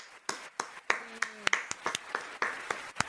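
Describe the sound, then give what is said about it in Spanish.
A brief burst of applause from a small group, with sharp hand claps landing in an uneven, scattered rhythm for about three seconds, and a faint voiced sound briefly underneath. “Quiero mencionar antes de, arrancar que esta semana que pasó salimos en Perú 21, así que un aplauso para nosotros.”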